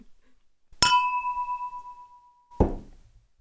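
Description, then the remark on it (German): Glasses clink together in a bright toast, the ring sustaining clearly for nearly two seconds before a second, rougher knock of glass cuts it off. No one speaks. “Auf jeden Fall, ja. Prost.”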